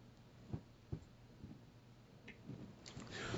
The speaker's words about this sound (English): I'm gonna take a sip here.